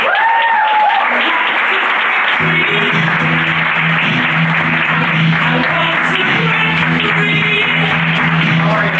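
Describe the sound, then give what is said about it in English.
Loud, sustained audience applause welcoming author and inspirational speaker Rob Bell fills the whole stretch, a dense wash of many hands clapping, joined partway through by a low steady musical tone underneath. “Give it up for Rob Bell, you guys.”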